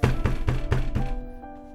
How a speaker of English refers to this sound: Then we go bang on his door. Right, you go upstairs, bang on the door.